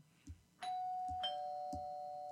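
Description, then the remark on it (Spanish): A two-tone doorbell chime, the doorbell of ANEFAR, rings out clearly, a bright ding followed by a lower dong that sustains and slowly fades, with soft low thumps in the background. “Tocamos un poquito el timbre, eh, tocamos el timbre.”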